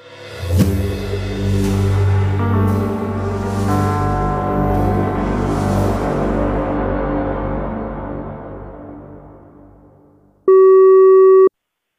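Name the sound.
telephone ringing tone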